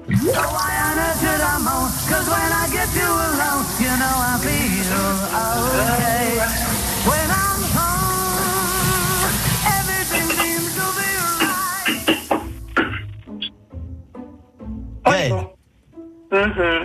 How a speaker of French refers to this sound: écoutez, un groupe chante sous sa douche.